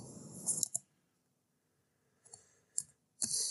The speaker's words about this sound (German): Ich hör, du tippst gerade, ne? Du googelst ja, gerade, was das bedeutet.